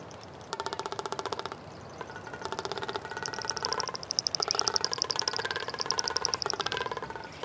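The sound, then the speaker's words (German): A frigatebird's courtship display call during the mating season: loud, rapid mechanical-sounding rattles and drumming trills in several bursts, with a higher whistling warble layered in partway through, continuous. “Den Radaubruder, den wir gerade gehört haben, ja, das ist der Fregattvogel.”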